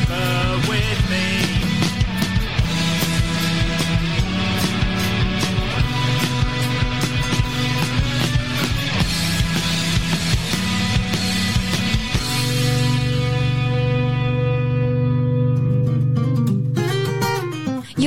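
A loud, full-band rock track from an EP sent in to a radio station, with steady driving drums and thick sustained bass and guitar, shifting to a long held chord with continued percussion toward the end. No voices are heard.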